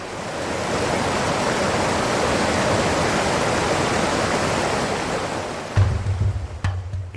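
A steady, dense roar of water pouring down a waterfall on the underground river of Hang Sung Dong cave, with a low rumble and a few sharp knocks near the end.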